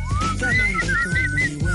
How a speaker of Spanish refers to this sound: El chiflido